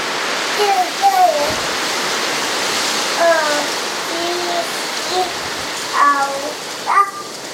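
A steady, dense rustle of the leaves of a treetop fills the whole clip like a continuous hiss, with a few brief, higher tonal chirps or vocal glides rising above it now and then.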